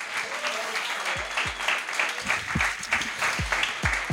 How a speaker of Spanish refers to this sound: Bueno, como ha dicho nuestra presidenta de Slam España, y como es ya tradición para no perder la liturgia, primer aplauso para los compañeros y las compañeras de Cala Sisqueta por abrirnos las puertas.